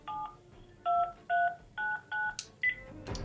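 A telephone number being dialed with trembling hands to call an elderly woman: about six short DTMF keypad tones in a quick, steady sequence, each a clear two-note beep, followed by a brief click and rustle at the end.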